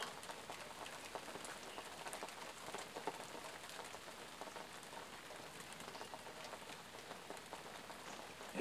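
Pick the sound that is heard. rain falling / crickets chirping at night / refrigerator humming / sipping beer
rain falling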